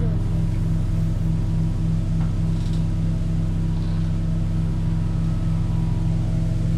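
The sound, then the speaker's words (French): A steady, loud low-pitched drone of a boat engine running on a river hums continuously with a constant harmonic throb, with no speech over it. “Le monsieur va voir pour le moteur.”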